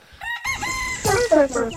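rooster crowing

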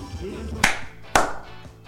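hand clapping applause

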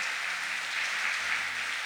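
audience applauding

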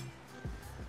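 heavy rain falling outside

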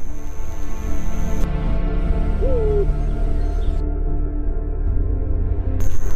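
eurasian eagle-owl hooting

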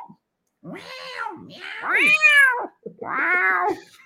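cat meowing

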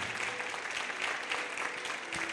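audience applauding

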